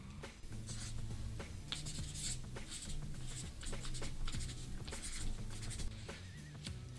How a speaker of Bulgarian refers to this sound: Като за финал на нашия разговор, ще те помоля да напишеш нещо в книгата на подкаста.